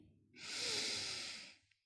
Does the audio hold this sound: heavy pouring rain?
no